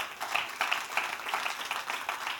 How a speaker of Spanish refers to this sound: Alguien le puede dar un aplauso al Señor en esta tarde.